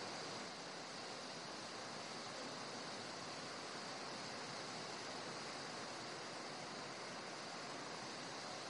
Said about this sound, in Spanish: Se nos vino la lluvia.